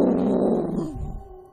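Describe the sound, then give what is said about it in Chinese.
A single roar of a rough, bossy dinosaur in the picture-book story 'Ni Zhen Hao', loud and rough with a low, growling rumble, holding strong for most of a second before it sinks lower and fades away. “很久以前，有一只粗暴的、霸道的、狡猾的、任性的恐龙。 嗷！”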